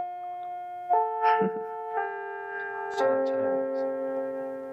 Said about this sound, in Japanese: チャイムです。